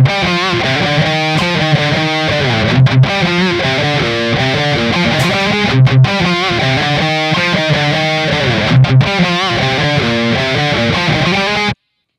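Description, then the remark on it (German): A heavily distorted electric guitar riff, a recorded DI signal reamped through an Orange cabinet, plays loud and alone, chugging with rhythmic palm-muted stops and brief gaps, thick in the low end, running steadily for about twelve seconds before cutting off. “Er hat ein aufgenommenes DI-Signal von einem Gitarren-Riff genommen und durch 3 Verstärker mit je 4 Boxen gejagt”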